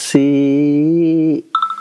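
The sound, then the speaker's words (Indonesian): A mobile phone rings with a loud, buzzy sustained electronic tone, followed by a quick series of short, high beeping pulses, with no talking. “telepon gue bunyi lagi bentar.”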